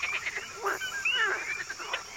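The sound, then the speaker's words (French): A dense chorus of male frogs calling at night, overlapping chirps, trills and whistling croaks at mid-to-high pitch forming a steady, busy wall of sound with no voices. “Les troubadours sont réunis autour d'une mare ou d'un lac ou d'une rivière, et parfois les mâles appartenant à une vingtaine d'espèces différentes chantent ensemble ou à tour de rôle. Un chœur polyphonique dans la nuit.”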